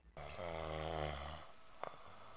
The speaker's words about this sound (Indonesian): dengkuran serigala terdengar ke telinga pemburu.